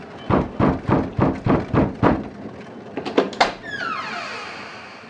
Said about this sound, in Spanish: Agotado y desesperanzado, golpeó casi sin aliento la puerta de la iglesia.